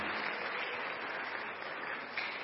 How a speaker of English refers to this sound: oh clap for jesus hallelujah